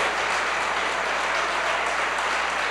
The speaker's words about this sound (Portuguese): Vamos aplaudir ao Senhor Jesus por cada vida que está chegando aqui.